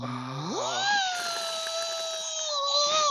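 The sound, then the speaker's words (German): A person vocally imitates a surgical drill going into bone: a low buzz that rises sharply into a sustained high-pitched whine, held for a couple of seconds, then dipping slightly at the end. “Und allein dieses, dieses Geräusch von diesem Bohrer, wie er so in, in den Knochen reingeht, dieses.”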